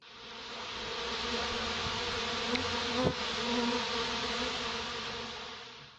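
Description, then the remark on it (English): A dense, steady insect-like buzzing sound effect fills the whole six seconds, loud like a swarm of bees, with a brief click near the middle and no voices. “Okay, that sound means it's time for our community buzz, where we take a look at what the fans are talking about.”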